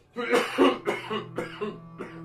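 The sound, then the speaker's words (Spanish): An old man coughs behind a wooden wall in a rough, hacking fit of about five harsh bursts, fairly loud, with a strained voiced rasp between them and no talking. “el silencio fue roto por la tos del supuesto anciano, tos que se escuchaba claramente hasta donde el joven trabajaba.”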